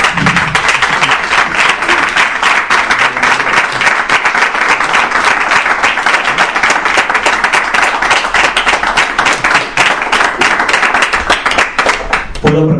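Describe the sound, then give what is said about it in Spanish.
An audience claps steadily in sustained applause for the guests present, a dense wash of many hands that stays loud and even for over twelve seconds before tapering slightly at the end. “Así que yo lo primero es que quiero que le brindéis un fuerte aplauso por estar aquí con nosotros.”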